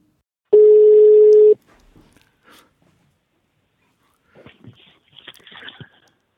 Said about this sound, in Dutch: gewoon uh, ouderwets op de telefoon bellen.